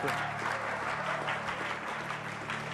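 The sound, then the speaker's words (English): Steady audience applause at a religious gathering, given for a man who has just prayed to be saved; a dense wash of many hands clapping at an even, sustained level with no pauses, and a faint hum of voices beneath it. “Come on, give him a big, big, big clap of.”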